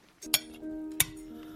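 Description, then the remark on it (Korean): A man and his grandson set their forks down onto their plates at the end of a meal, two clinks about half a second apart, each a sharp metallic tap with a short ringing tail, with no talking. “그와 손자는 동시에 포크를 내려놓았다.”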